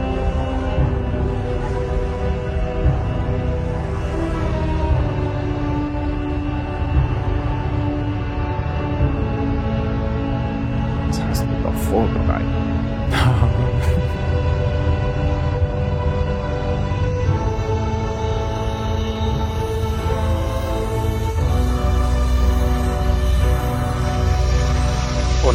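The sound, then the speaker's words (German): An eerie, shimmering glow sound effect: a dense, sustained humming drone with layered tones, steady and fairly loud throughout, with a few brief bright swells around the middle. “das, was man da hört, ist das Leuchten.”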